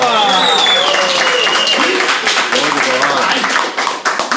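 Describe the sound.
A group on the MM Tour 4 in San Francisco breaks into loud, dense applause, many hands clapping in a steady patter for about four seconds, with voices cheering and shouting over it.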